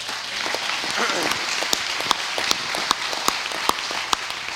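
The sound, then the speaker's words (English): A church audience claps their hands at the preacher's call, starting as a dense, steady wash of applause that thins out into a few scattered, sharp claps at a loose, regular pace. “If you believe that, clap your hands today.”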